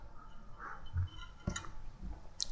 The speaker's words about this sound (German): Ich nehme einen Schluck von meiner Kräutertee-Mischung.